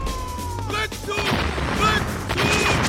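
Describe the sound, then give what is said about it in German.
Repeated heavy blasts and bursts of rocket fire in a dense, chaotic barrage, with whistling streaks cutting through the rumble and a few faint voices mixed in beneath. “Das Raketenfeuer beginnt wieder.”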